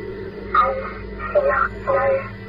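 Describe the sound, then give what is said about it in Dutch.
A tinny, band-limited robotic voice crackles through a radio in three short bursts over a steady low hum, with brief tonal blips resembling Morse code mixed in. “Plots hoor je opeens een robotachtige stem. Een paar piepjes die wel morsecode lijken en daarna wordt het stil.”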